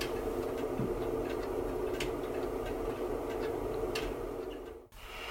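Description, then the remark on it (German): A steady, dense hiss of pink noise generated by a 2.7 V Zener diode, fuller and deeper than white noise, runs evenly with a few faint ticks and a brief dip in level near the end. “Rosa Rauschen Z-Diode 2,7 Volt.”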